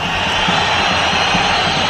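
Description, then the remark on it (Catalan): A stadium crowd at an Espanyol versus Levante football match whistles continuously because Espanyol is playing on with 10 men. It is a dense, steady wash of shrill noise with a low rumble of many voices beneath, holding at a constant loud level with no pauses. “i aquests I... xiulets, evidentment, és perquè l'Espanyol continua amb 10.”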